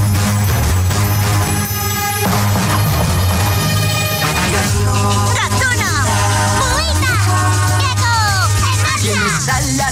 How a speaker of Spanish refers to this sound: Pues venga, presta mucha atención. La intro de esta serie de dibujos suena así.